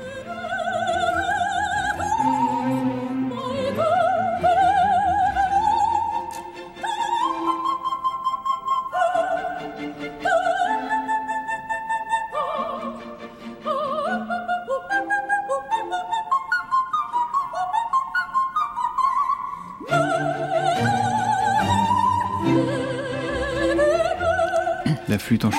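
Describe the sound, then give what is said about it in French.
A classical instrumental piece plays continuously and fairly loud, with flowing melodic lines over sustained harmony and a brief dip in intensity midway; no one speaks. “Mozart, eh évidemment.”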